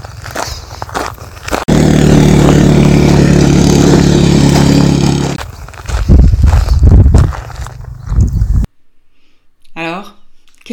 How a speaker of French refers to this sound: Et là, ces motos, ces jeeps, eh bien, ça me gêne. Vous voulez voir Vous voulez écouter Allez-y, écoutez.